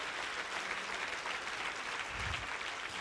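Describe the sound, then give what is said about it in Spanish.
An audience claps steadily for the whole three seconds, a dense crackling wash of many hands at an even, fairly loud level, with no voices standing out. “Si usted quiere, aplauda.”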